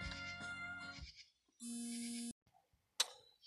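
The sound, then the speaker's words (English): A phone buzzes on vibrate with an incoming call, a steady, loud electric hum lasting under a second, alongside other brief harmonic tones and a short click, with no talking. “so y'all, I had a call. You probably don't them why it's like stopping, you hear buzzing.”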